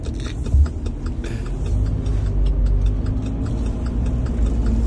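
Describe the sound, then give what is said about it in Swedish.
A car turn signal ticks in a steady, fairly quick rhythm over the low, constant rumble of a running engine, with a brief thump near the start and no talking. “Hör du blinker så går det 300.”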